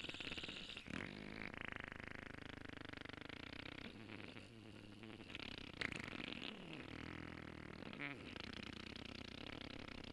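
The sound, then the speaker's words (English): A person blows a long, sustained raspberry imitating a fart, a controlled exhale that is buzzy and fluttering, wavers in pitch and carries on steadily for about ten seconds, fairly loud. “So sometimes I'll try to see how long I can do like a controlled exhale while making a sound like”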